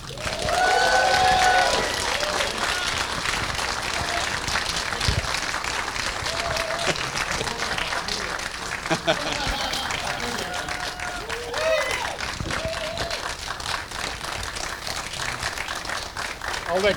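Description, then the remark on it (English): A crowd applauds steadily for about seventeen seconds as actor Gary Lockwood is introduced, dense clapping mixed with cheers and a few high whoops and whistles, loudest at the start and holding strong throughout. “Ladies and gentlemen, let's hear it for Gary Lockwood.”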